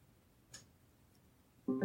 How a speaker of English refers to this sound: Alexa, turn on the living room lamp. You may have heard the little click, but I have a lamp module that's connected to a lamp and using or through the abode hub, it turned on the lamp.